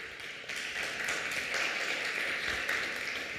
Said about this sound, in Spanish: ¿Cuántos dicen amén? Denle un fuerte aplauso al Rey que reina.